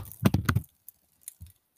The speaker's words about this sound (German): Das war mein Flumi auf der Tastatur.